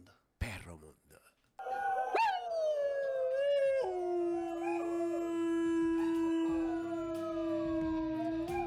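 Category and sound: animal, dog howling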